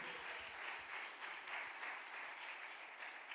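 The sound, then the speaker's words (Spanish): An audience applauds steadily, a dense, sustained wash of many hands clapping at an even loudness throughout, with no voices standing out. “Dele otro aplauso.”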